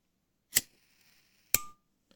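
A lighter is struck twice, about a second apart, each a sharp click-scrape followed by a faint hiss, then a tiny tick. No one speaks.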